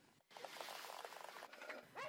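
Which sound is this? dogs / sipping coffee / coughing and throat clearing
dogs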